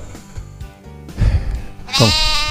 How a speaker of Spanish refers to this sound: Ahí está, está corral de los chivos, está mm. Criamos chivos acá. Sí, sí, criamos chivos.